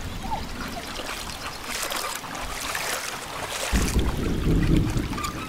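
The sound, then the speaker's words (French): Feet slosh and wade through shallow, very low river water, with continuous splashing and trickling over a steady wind-like hiss, becoming heavier and louder in the last couple of seconds. “Promis, je ne pose pas un pied sur l'autre rive, ça te va Je mets juste les pieds dans l'eau.”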